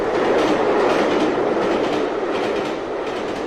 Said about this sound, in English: What management did not seem to realise was that in the long term, people would not invest in stereo just to have the effect of trains passing through their living rooms.